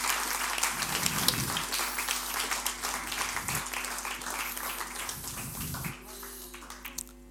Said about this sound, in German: Geben wir ihnen Applaus, es ist einfacher hochzukommen. Genau.